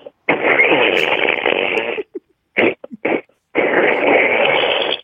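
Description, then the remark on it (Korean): A person doing a vocal impression imitates a tractor engine, a second, more powerful attempt: a long, rough, sputtering rumble, a few short choppy bursts, then another sustained growl, all loud, with a thin, band-limited phone-like quality. “네, 트랙터.”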